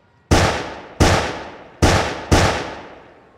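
Four loud revolver shots crack out in quick, slightly uneven succession, each sharp bang trailing into a brief ringing echo. No one speaks.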